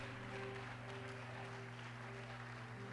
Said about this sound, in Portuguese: Pode aplaudir ao Senhor. Pode aplaudir ao Senhor, porque Deus é maravilhoso.